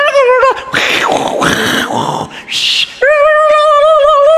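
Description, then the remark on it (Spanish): A voice imitates a Telmex dial-up modem connecting to the internet: warbling tones, hissy screeching bursts and static-like noise, then a steady buzzy wavering tone to finish, all loud and continuous. “Ustedes no conocen lo que es conectarse a internet vía modem de Telmex cuando tenías que marcar y sonaba”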